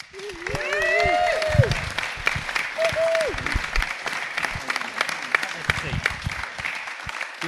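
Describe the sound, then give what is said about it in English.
A live audience welcomes actor Ashley Gunstock with loud, sustained applause, dense clapping throughout, punctuated early on by a few high whoops and cheers that soon give way to steady clapping. “Ladies and gents, make some noise for the marvellous Ashley Gunstock.”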